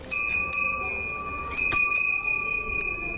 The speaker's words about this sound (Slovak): ktorá tu je v strede námestia, na ktorej sa dá aj zazvoniť vraj na želanie. A no, ak na želanie, tak potom všetkým by som asi zaželala príjemné a spokojné prežitie Vianočných sviatkov a ja teda potiahnem za ten zvonček.